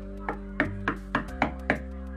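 Six sharp knocks on a door in a quick, steady rhythm, distinct over a constant low background hum.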